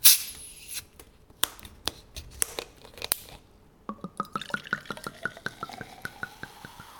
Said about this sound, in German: Also es klingt klar nach einer Flasche, die aufgemacht wird und mhm. ein Getränk, das in ein Glas oder in einen Becher hineinfließt und es krüselt auch schon so. Mhm. Es klingt nach Kohlensäure.